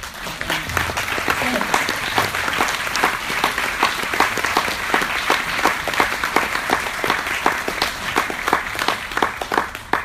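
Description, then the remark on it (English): Sustained applause from an audience at a music performance, applauding the musician who plays the guitars and does the arrangements, a dense, steady patter of many hands clapping for about ten seconds, loud and even throughout with no voices rising above it. “But actually, this is the guy who deserves to be praised and applauded.”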